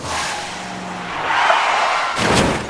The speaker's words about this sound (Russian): сталкиваются две машины. Они отлетают друг от друга, врезаются в другие авто, какие-то из них летят в отбойники, а какие-то в кювет.